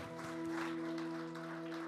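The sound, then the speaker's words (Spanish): An audience applauding the Lord, a dense, continuous patter of many hands clapping at a steady loudness, with a sustained hum of held musical tones underneath. “más fuerte el aplauso, Señor, hoy día.”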